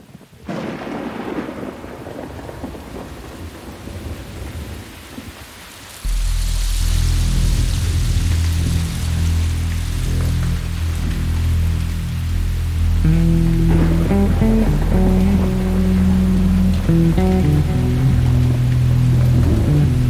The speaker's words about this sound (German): Und einem kleinen Regenguss.